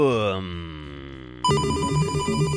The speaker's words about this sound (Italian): ma noi al suono di questo allegro motivetto, fai sentire l'allegro motivetto? Ce ne andiamo da um, Press Up.